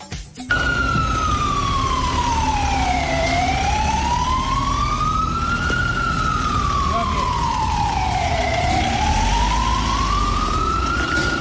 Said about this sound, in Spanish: Era el momento en el que el furgón de la Policía Nacional llegaba hasta la sección de la audiencia provincial, en concreto, bueno, pues hasta los juzgados